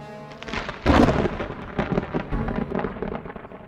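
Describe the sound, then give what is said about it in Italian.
Steady rain hisses throughout while a loud clap of thunder breaks in about a second in and rumbles on, deep and rolling, with no voices present. “Il malcontento cresce talmente tanto che un giorno di pioggia Jack Kirby attraversa la strada e entra in un alto palazzo scuro.”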